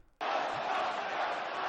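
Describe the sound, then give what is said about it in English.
A large arena crowd suddenly erupts into a loud, sustained roar of cheering and yelling, filling the space with dense, continuous noise after a brief quiet start. “That's how you rile up a crowd, old man.”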